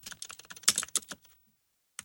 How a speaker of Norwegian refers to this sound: Da skal vi teste tastaturet og bare se hvordan det er å skrive på et 34 år gammelt tastatur.